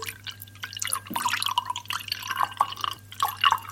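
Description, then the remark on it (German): Undiluted sea buckthorn punch is poured from a bottle into a glass, a steady splashing gurgle broken by bright little drips and plinks, with no one speaking. “ja, ist halt unverdünnt, ne? Ja, ist so, rein ins Glas.”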